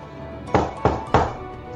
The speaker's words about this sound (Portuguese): Você bate na porta, escuta algum movimento.